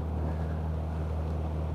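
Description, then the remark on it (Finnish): The aging engine of a wooden motorboat drones steadily on Lake Saimaa in Finland, a low even hum with a faint rush of wind and water over it, continuing unchanged throughout with no voices. “Eli tämmöisiä puisia moottoriveneitä ei enää kovin paljon täällä Saimaalla liiku.”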